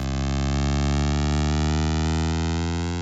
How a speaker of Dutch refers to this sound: Wat u hoort is het geluid van de landingsradar van die Huygenszonde uit 2005. Hoe hoger de piepjes en hoe dichter op elkaar, hoe dichter we bij het oppervlak zijn.